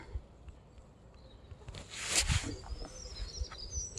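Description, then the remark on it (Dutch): Faint, thin birdsong chirps and trills from small birds by a pond where ducks swim, on a quiet morning around half past eight, with a brief rush of noise partway through and no talking. “En ik zo hier sta bij de vijver eentjes zwemmen, vogeltjes fluiten.”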